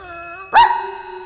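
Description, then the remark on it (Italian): A puppy whimpers in a thin, high whine, then lets out one sudden sharp yelp that trails into a sustained, wavering whimper, with no talking. “C'è anche chi fa finta di essere un cucciolo di cane.”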